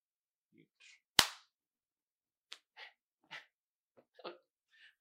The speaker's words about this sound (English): Get this motherfucking hand clap, god damn it.